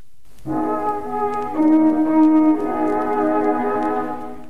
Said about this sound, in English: Okay, I think this is the right song.